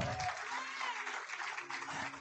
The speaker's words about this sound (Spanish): Denle un aplauso fuerte al Señor si lo está creyendo.